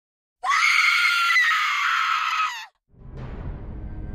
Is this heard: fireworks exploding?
no